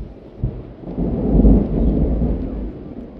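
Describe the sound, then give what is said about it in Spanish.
Large bijao leaves shaken hard by a jaibaná (shaman) in a small room of the Casa Azul Celeste make a continuous rushing, rumbling flutter that swells in the middle and eases off, resembling gusting wind or falling thunder, with no talking. “Canto, respiración y soplido todos se confunden con el aleteo de las hojas de bijao.”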